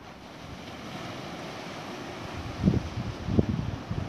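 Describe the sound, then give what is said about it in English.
Ocean waves wash steadily onto a shore, a continuous rushing roar with two heavier low surges near the end. No one speaks. “Oh, I might speak now because the waves seem to have stopped for a while.”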